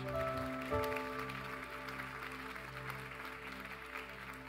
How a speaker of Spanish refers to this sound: Vamos a darles un fuerte aplauso al, al equipo de arquitectos.